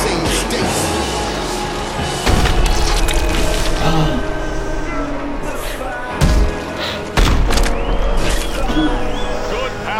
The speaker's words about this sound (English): power punch. The right hand landed. Big, big shot comes crashing home.